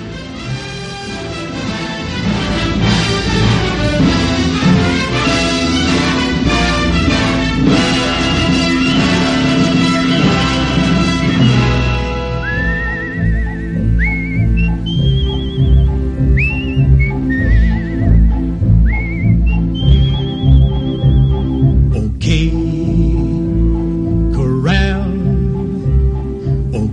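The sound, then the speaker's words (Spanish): Loud, full orchestral music from a 1957 western film soundtrack plays, and about halfway through a bright whistled melody enters with repeated rising swoops, riding over the steady accompaniment until the end. “Pasamos a escuchar un pequeño fragmento.”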